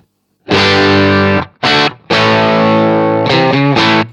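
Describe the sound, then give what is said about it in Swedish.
A distorted electric guitar played through a Marshall amp emulation, switched over from a Vox sound, with a crunchy tone plays a sustained chord, a short stab, then a long ringing chord with a few quick changes near the end, loud. “Kan bara gå från det här Vox-soundet till Marshallen igen då.”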